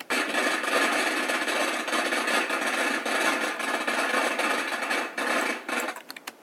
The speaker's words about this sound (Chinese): 你听到了吗？这就是放鞭炮的声音。放是动词，在这里是用火烧的意思。鞭炮是名词，是一种样子长长的东西。放鞭炮就是用火烧鞭炮，鞭炮烧起来以后就会发出噼里啪啦很吵的声音。